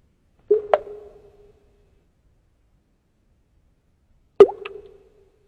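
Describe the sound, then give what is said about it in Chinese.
Two distinct water drops fall about four seconds apart, each a sharp, resonant plop with a short ringing tail, then silence. No voices. “怎么还有水滴的声音？”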